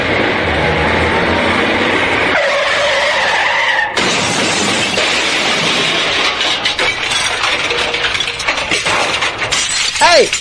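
Loud, sustained shattering of glass with crashing debris and scraping, a chaotic crash-like burst that fills the whole stretch, ending with a bright ringing tone; no voices.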